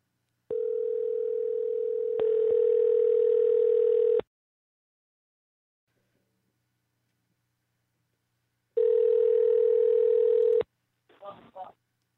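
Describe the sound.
A telephone rings over the line: two long, steady electronic tones, a few seconds each, separated by a silent pause, then a brief voice at the very end.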